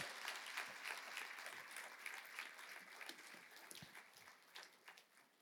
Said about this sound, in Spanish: Dale un aplauso a Jesucristo, amén.